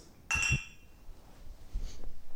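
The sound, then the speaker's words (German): Glasses clink together in a toast: one bright, high-pitched chime that rings for about half a second and fades, followed by quieter handling noise. “So. Cheers. Cheers.”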